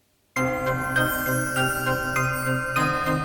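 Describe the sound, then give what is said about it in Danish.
A steady jingling rattle with regular knocking hits of hooves scraping and stepping about every half second, set against sustained ringing tones, outside on a foggy evening. Loud, with no talking. “Det er mere en slags raslen. Og hvad er nu det? Kan du høre lyden af skrabende hove?”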